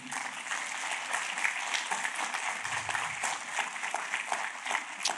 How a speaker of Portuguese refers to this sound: Você pode dar uma aplauso para Deus por causa disso, amém?